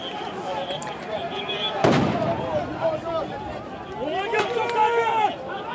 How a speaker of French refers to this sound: Justement, quand ils s'installent, je fais, putain, waouh, et ce qui m'impressionne aussi, c'est donc ces, ces jets de lacrymo avant les charges.